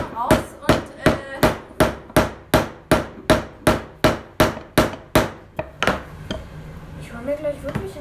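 A heavy hammer bangs in a fast, steady rhythm, around fifteen loud strikes in a row, then stops as a voice briefly speaks at the end.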